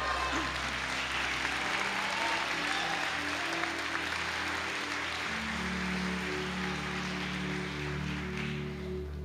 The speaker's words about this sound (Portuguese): Será que tentei três ou quatro aqui para dar um glória a Deus e aplaudir a Jesus nessa manhã?